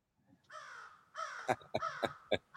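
crow cawing sound effect

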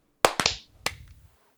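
hand clap

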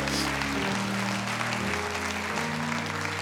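audience applause

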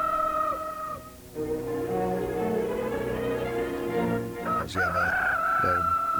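rooster crowing

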